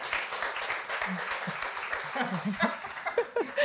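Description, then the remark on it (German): A steady wash of audience applause, many hands clapping in a dense, even crackle, with laughter and a few voices rising over it toward the end. “Sorry, weil sie nicht in deinen Applaus reinquatschen.”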